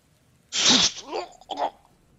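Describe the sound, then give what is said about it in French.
A voice imitates a wet, guttural gurgle: a sudden hissing burst followed by two short, wavering throaty gargles, fairly loud, with nothing else around it. “Gravissez les escaliers et derrière vous, vous entendez un gargouillis.”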